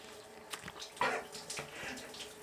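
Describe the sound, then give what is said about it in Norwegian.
A hot shower runs in a steady, hissing stream, with a few splashy bursts near the middle as the water hits something, while a person takes a bite of an orange in the shower. It is fairly quiet, and nobody speaks. “Nå skal jeg ta en jafs av en appelsin inn i en varm dusj.”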